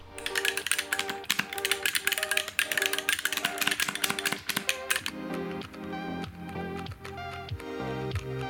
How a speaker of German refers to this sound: Mikroschalter bedeutet, wenn ihr in eine entsprechende Richtung lenkt, dass ihr dieses schöne satte Klacken vernehmt.